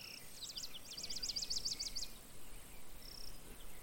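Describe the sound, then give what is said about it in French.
A rapid series of high, thin insect chirps pulses for about two seconds over a soft outdoor hiss, then fades into faint ambient background, with no one speaking. “Ces insectes qui, comme une escorte, vous accompagne.”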